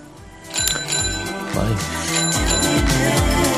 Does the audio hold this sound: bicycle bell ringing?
yes